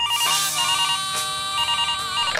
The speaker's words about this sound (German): Drum jetzt der tägliche Telefonanruf von der Mama.